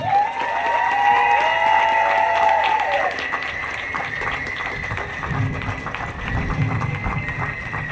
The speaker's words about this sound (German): Einmal einen großen Applaus an das Team von Ava Stern.